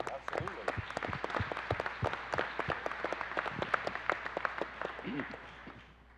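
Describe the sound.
A church audience at Crossgate Church claps steadily in appreciation of those who have served as trustees, a dense patter of many hands sustained for several seconds before gradually thinning out near the end, with a few voices murmuring underneath.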